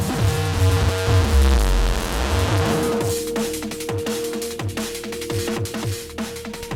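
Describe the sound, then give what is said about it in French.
A loud audio feedback loop with built-in saturation distortion: a steady ringing tone rides over harsh, saturated distortion, rumbling heavily at first, then breaking into choppy, crackling pulses. No one speaks. “Donc, on a de la saturation de la distorsion qui est intégrée”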